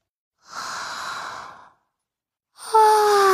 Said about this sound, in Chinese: 唉，哈欠云一边打着哈欠，一边带着它们飞到了池塘边。青蛙、蝴蝶和鹅宝宝也开始打哈欠了。